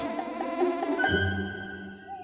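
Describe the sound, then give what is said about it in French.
Two bees buzz in flight in a meadow, a continuous droning hum that wavers at first, then settles into a steadier, higher-pitched whine partway through. No voices are heard. “Deux petites abeilles seules dans la prairie la reine ne va pas être contente.”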